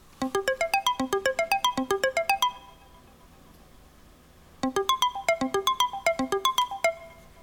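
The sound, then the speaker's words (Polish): A phone alarm tone, previewed while choosing among the phone's alarm sounds, plays alone and clear: quick, bright electronic notes climbing in repeated rising runs, stopping after a couple of seconds, then starting again after a short silence. “To są dźwięki alarmów.”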